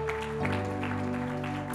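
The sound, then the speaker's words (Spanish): An audience at a church service claps as applause for the Lord after a prayer, over sustained keyboard chords, the applause a dense, even patter that holds at the same moderate loudness throughout the short stretch. “¿Cómo puede darle un fuerte aplauso al Señor?”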